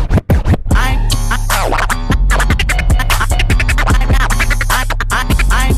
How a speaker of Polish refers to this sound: Zobaczycie, a raczej usłyszycie tutaj zabawę padami, zmianą tempa i różnymi bajerkami, które daje DJ-om obecnie współczesna technika. Zresztą posłuchajcie sami.